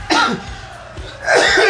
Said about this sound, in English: Jesus Christ! Don't you dare stop it. Keep coughing.